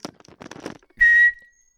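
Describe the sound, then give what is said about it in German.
A phone rings with one short, loud, high electronic tone lasting about a quarter second, then a fading trail. Faint, muffled, broken sounds come before it. “Ähm, das ist bei mir das Telefon.”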